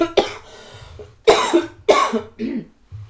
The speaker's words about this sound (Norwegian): nå må jeg hoste